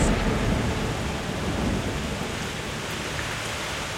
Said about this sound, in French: C'est le nom de la terrible mousson de printemps Ce vent violent arrive de la mer en apportant une pluie torrentielle